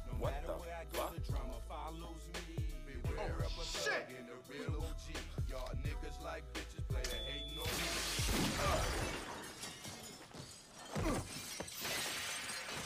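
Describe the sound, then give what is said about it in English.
Talking and thumping give way to a loud crash of shattering glass around the middle, followed by several seconds of scattered tinkling shards settling. “And why blast this thing? It's glass.”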